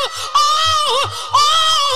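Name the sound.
woman screaming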